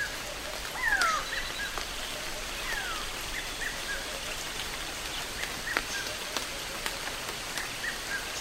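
Steady light rain patters through the branches of a baobab tree, a soft, even hiss with scattered louder drips, while a few birds chirp faintly now and then; mist covers the surroundings.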